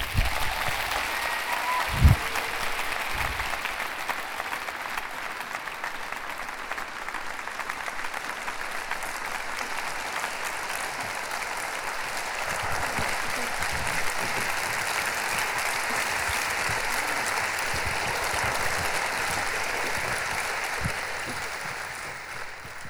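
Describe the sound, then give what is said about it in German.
Sustained loud applause from a crowd welcoming a woman invited to come forward, a dense steady wash of clapping lasting the whole stretch, with a brief low thump near the start. “Gebt ihr einen großen Applaus.”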